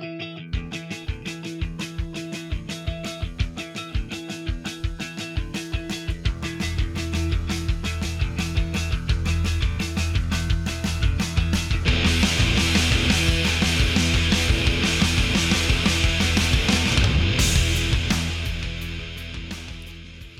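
A rock track opens with punchy drum hits and a muted guitar pattern, then thick distorted electric guitars surge in and grow louder and denser, with no one speaking.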